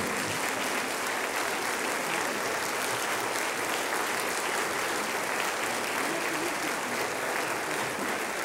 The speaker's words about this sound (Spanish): Así es que hermanos, gócense, pónganse de pie, denle un fuerte aplauso al Señor y gócense.